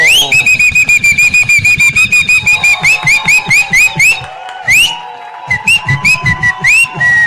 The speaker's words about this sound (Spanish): Bueno, entonces, a ver, a silbar cumpleañero para...